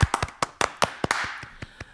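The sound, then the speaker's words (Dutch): Light, sparse applause: roughly a dozen sharp, irregular hand claps over two seconds, with no voices, as if only a few people are clapping. “Applaus.”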